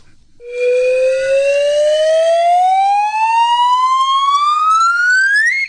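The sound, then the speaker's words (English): A slide whistle plays one long, steady upward glide, its bright tone climbing smoothly in pitch for several seconds. It is loud and heard alone, with no talking. “Yep, that was a slide whistle.”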